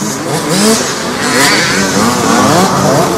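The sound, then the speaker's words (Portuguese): A motorcycle engine revs loudly and steadily during a motorbike ride, its pitch rising and falling as the throttle shifts, with a constant rushing roar underneath and no voices. “o que temos agora são cenas de bastidores que começam assim com um passeio de mota.”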